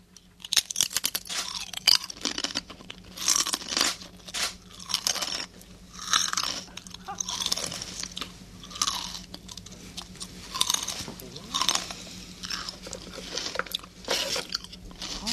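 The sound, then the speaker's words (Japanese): Crisp crunching of Pringles snack chips being chewed by an announcer for a guessing quiz, with steady repeated bites and brittle crackling bursts continuing for the whole stretch, no talking over it. “そうなんで、じゃあちょっと今から一つクイズ出します、歌丸さんに離れてるんで、うな、やアナウンサーがこれから何かとあるものを食べますんで、咀嚼しますので、何の、何を食べてるのでしょうか、当ててください。”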